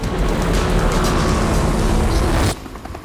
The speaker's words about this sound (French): Il grimpe dans l'hélicoptère et s'envole.